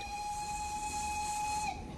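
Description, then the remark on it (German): A steam train heading toward the North Pole sounds its whistle in one long, steady shrill blast over a low rumbling of rolling wheels, then cuts off near the end, leaving the train's rumble. “alle saßen plötzlich wieder in diesem Zug, der Richtung Nordpol fuhr.”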